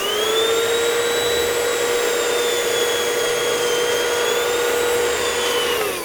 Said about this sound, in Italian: Eccola! Una fantastica turbo aspirapolvere! Operazione super risucchio! Pronti? Partenza! Via!